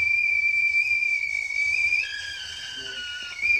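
tea kettle whistling

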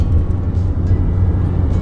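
car interior driving noise

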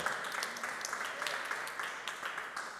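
audience applause

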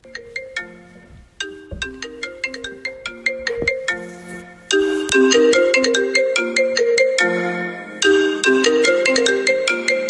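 phone ringtone

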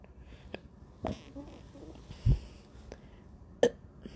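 burp

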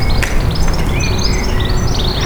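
small birds chirping outdoors

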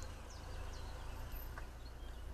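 common chiffchaff song

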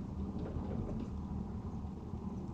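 wind blowing outside

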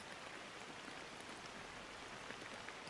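rain falling

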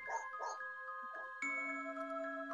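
dogs barking nearby

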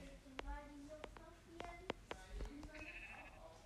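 sheep bleating

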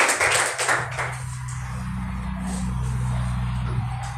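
audience clapping

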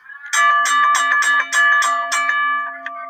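wrestling ring bell ringing

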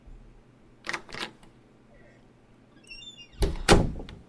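door being opened

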